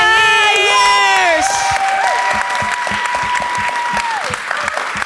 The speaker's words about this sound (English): This was …, and can we please give it up one more time, really, really loud